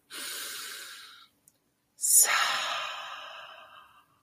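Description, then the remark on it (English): A long, airy inhale is followed by a brief pause and then a fuller, sighing exhale that slowly fades out, with no other sounds around it. “And I don't know if anyone's on right now and listening, but if you are, um, you know, put your hand on your heart and take a great big breath.”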